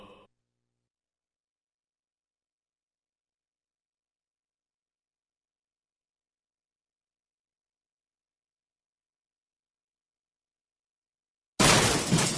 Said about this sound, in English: That's the sound of people throwing out their old dehumidifiers. They've replaced them with the energy saving Wave Ventilation Unit.